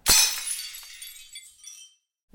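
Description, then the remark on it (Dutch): A blue glass knocked over in a blue cupboard shatters with a sharp, loud crash, followed by a scatter of bright tinkling shards settling for about two seconds before silence. No voices. “Ja, en dan stoot je het om omdat je denkt dat hij verder naar achteren staat.”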